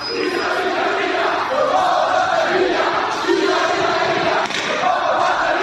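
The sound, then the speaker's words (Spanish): A dense crowd of Real Mallorca football fans in Mallorca cheers and chants continuously as the team arrives back from San Sebastián, a loud roar of many voices rising and swelling in waves without pause. “Este sonido es en Somos, acaba de llegar el Mallorca y allí está la afición.”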